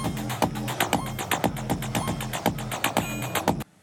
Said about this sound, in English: it's a three channel drum module but you have four different drum uh, synth algorithms that you can assign to any of the three channels. I'll just fast forward it here because it made some really, I thought it made some really cool sounds.